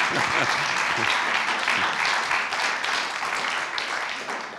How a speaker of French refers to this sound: Oui, on peut l'applaudir.